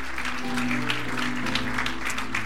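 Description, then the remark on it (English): A church audience applauding at a morning service, giving God a hand clap, with dense, steady hand clapping that fills the whole stretch, with a low sustained hum beneath and no clear individual voices. “We give God a hand clap this morning.”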